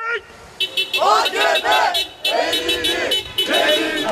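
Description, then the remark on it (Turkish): CHP party members march in Suadiye, Kadıköy, chanting slogans in loud, rhythmic bursts out in the open with banners, protesting petrol reaching 5 lira per litre, while drivers honk car horns steadily in support, blending into a noisy street demonstration. “Suadiye'de buluşan CHP'liler pankartlar ve sloganlarla benzinin litresinin 5 lirayı bulmasını protesto etti. Sürücüler de zaman zaman korna çalarak eyleme destek verdi.”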